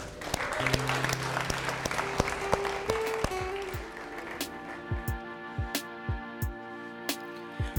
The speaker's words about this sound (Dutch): En laten we voor de mensen die een keuze hebben gemaakt vanmorgen, laten we even een applaus geven.